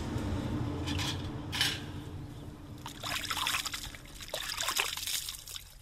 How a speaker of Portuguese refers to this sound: A água que passa no rosto ganha o tom da fuligem. Fica assim com a cara dele, mais ou menos. Está suja, né?